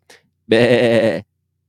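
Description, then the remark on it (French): A single loud sheep bleat with a quavering, wavering tone lasting under a second, preceded by a faint brief click. “Merci, Bé.”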